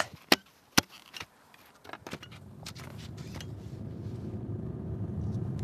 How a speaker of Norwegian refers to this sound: Vi sitter i bilen på vei tilbake fra trening.